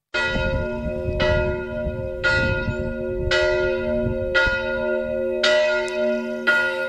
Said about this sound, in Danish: bare en enkelt kirkeklokke kan der jo være smæk på